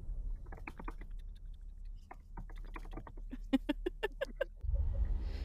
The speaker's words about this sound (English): I love the ambiance of your typing.